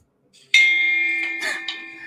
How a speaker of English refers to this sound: Hopefully, you could hear that. That was the gong.